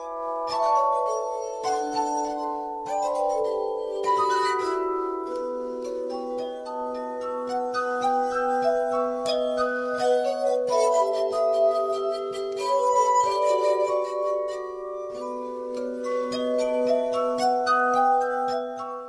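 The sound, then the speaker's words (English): Glass harp music played by a duo in Gdańsk, Poland, fills the whole stretch: sustained, shimmering tones from rubbed glass rims, overlapping into a slow, flowing melody with a steady low drone underneath. No voices. “Ethereal Glass Harp Music from Poland”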